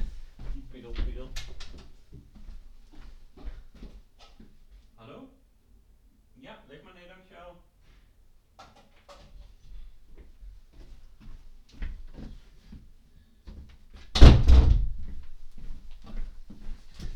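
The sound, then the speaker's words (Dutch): A door opens and shuts with one loud, solid thud, preceded by quieter knocks and handling sounds, with muffled voices talking in the background throughout, as someone answers the doorbell to take in a parcel for the neighbours. “En dan, oh, we hebben een beller.”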